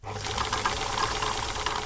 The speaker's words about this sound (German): sitzt an einer ihrer beiden Nähmaschinen und tut das, was sie am liebsten macht. Klar, nähen.